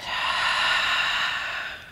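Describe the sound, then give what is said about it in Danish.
A single long, deep breath, airy and steady for about two seconds, with no talking, taken while holding the Downward Dog yoga pose. “Og tag tre vejrtrækninger her i Down Dog.”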